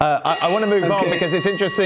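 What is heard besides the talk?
alarm ringing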